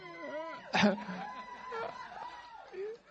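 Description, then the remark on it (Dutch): A person walking up and down an aisle makes loud, high-pitched squeaking noises with their voice, as if from joy, including one sudden loud squeal, over faint background chatter and what sounds like giggling. “En dan mag jij even de harde, piepende geluiden maken.”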